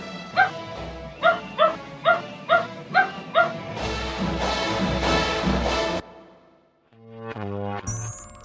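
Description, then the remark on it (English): Jake, an acting dog and Ralston Purina's cover dog, barks about eight times in a quick, steady rhythm, clear, before a loud burst of music-like sound and a few electronic tones take over. “I'm the stage mom for my dog.”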